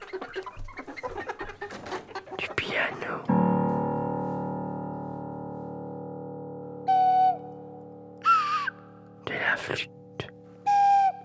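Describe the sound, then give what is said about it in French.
Hens cluck in several short, separate bursts over a steady, droning hum, following a few seconds of rustling, crackling noise at the start. “J'aime le son des poules.”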